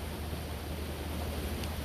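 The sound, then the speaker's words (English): A stream in a small patch of woodland in Penryn, near the campus, flows steadily and strongly after much rain that day, a constant close rushing wash of water with a low rumble underneath and no voices. “I'm standing next to a stream in Penryn, um, in a small patch of woodland, very near, very close to Penryn campus.”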